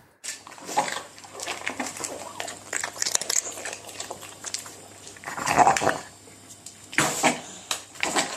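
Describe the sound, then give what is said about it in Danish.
A dog with a blocked nose eats noisily, with wet chewing and snuffling, laboured breaths through the food, and several louder gulping snorts toward the end. “Når, vi har også en lyd, når de, når de spiser.”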